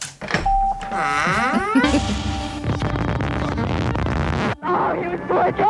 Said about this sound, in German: Okay, dann knall da nochmal mal einen Jingle drin, ja mal vielleicht so.